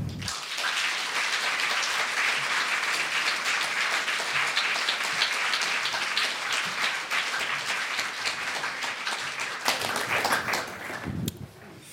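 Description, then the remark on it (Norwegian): Sustained applause from an audience as an author and a moderator are welcomed onto the stage, a dense wash of clapping that stays steady and loud for about eleven seconds before tapering off abruptly near the end. “La oss gi dem en varm applaus og ønske dem opp på scenen.”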